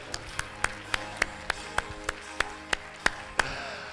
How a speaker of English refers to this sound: Come on, clap and let's rejoice.